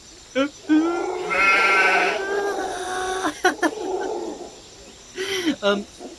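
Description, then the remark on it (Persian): A person imitates a sheep with a long, wavering bleat, then a few shorter bleating calls, fairly loud with no other talk. “یادت میاد میشه دوباره برام صدا در بیاری مثلا صدای صدای گاو یا مثلا صدای گوسفند”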